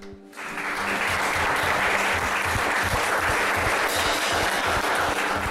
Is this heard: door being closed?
no